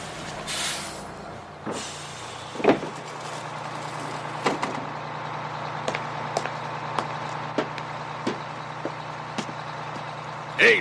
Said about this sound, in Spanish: Ah, si no le hago señas o algo, va a pasar de largo. ¡Ey! chofer! No, por favor, que me vea. ¡Chofer! ¡Autobús! ¡Pare, por favor!